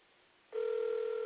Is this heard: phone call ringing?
yes